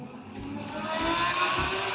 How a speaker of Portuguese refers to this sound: Olha moto, olha moto.